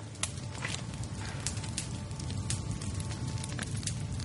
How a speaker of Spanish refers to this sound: La noche antes del atraco, el profesor contempla una fotografía de un hombre de mediana edad con barba antes de arrojarla al fuego de la chimenea.